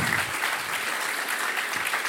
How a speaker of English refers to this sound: And so I just wanted to honour these guys this morning. Can we just clap and cheer?